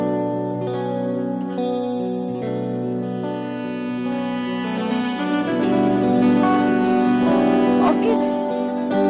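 A Hindi film song plays continuously, a male voice singing over a full, steady arrangement of sustained tones drenched in echo and chorus effects, swelling slightly louder toward the end.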